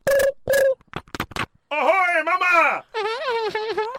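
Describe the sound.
A voice mimics a mobile phone ringing: two short beeping tones, a rapid burst of clicks, then long warbling sung tones rising and falling, loud, with no other talk.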